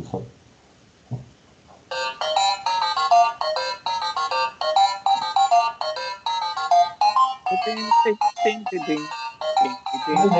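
After a brief quiet moment, a phone ringtone starts: a loud, bright 8-bit chiptune melody of quick stepped notes that plays continuously in a bouncy retro theme-song rhythm.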